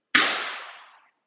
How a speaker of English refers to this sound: it's fireworks. I'm in Brooklyn, by the way. So still, like I said, July 7th. They're bugging, bro. Oh, and they're right. It's literally my neighbors are busting the fireworks right now.